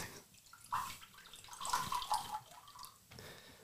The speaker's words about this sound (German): Gieß mir mal hier so ein bisschen was ein.